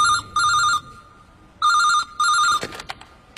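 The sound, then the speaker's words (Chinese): A telephone at a criminal police duty desk rings in two quick double bursts, a bright electronic trilling tone with no voices, then the ringing stops with a sharp clatter. “这一天，他在值班的时候，面前的电话突然响了起来。”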